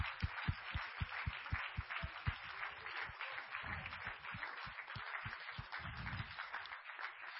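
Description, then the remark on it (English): An audience claps continuously for several seconds, a dense spread of hand claps with a steady, fairly rhythmic pulse and no voices over it, heard at moderate volume. “Come on, clap your hands if you believe that.”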